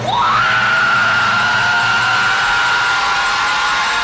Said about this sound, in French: Et puis elle, je pense qu'ils ont vraiment pris son vrai cri. Ils l'ont vraiment introduit parce qu'elle fait pas ah, elle fait Wouah!